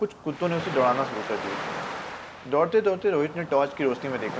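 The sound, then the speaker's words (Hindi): Ocean surf washes onto a beach at night in a steady, hissing rush beneath a man's narration, the breaking-wave noise swelling most clearly in the pause between his sentences. “जैसे जैसे वो आगे बढ़ रहा था समुंदर की आवाज़ और तेज होती जा रही थी”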